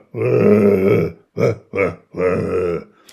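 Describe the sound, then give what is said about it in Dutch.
A person imitates a gazelle's grunting call with four loud, rough, belching bursts: two longer grunts framing two short ones, with no other talk. “Maar op een andere plek kwam er toch een geluid van een gazelle En ik moet zeggen dat het niet een heel elegant geluid is.”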